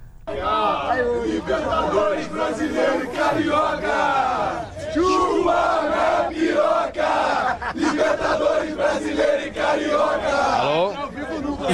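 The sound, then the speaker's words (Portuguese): A dense crowd of Flamengo football fans shouts and chants loudly and continuously behind a reporter going live on TV, voices overlapping in a rowdy roar with no quiet moments throughout. “eles foram entrar ao vivo e a torcida do Flamengo tava atrás, né?”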